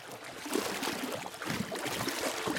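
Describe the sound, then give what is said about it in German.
Steady rushing river current flows past a small boat, a broad continuous wash with gentle splashing swells, moderately loud, with no voices. “Die Strömung treibt sie dem Boot entgegen.”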